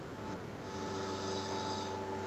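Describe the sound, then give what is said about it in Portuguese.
A man snoring in a steady, raspy drone that holds at an even level for the whole moment, fairly loud, with no talking. “É, é, é, é ele roncando mesmo, né, meu?”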